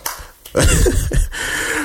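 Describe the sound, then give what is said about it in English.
Clapping breaks out after a brief sharp smack, becoming a steady burst of applause that holds at an even level to the end, with no voices. “So let's clap it up for the justice, both of the justice.”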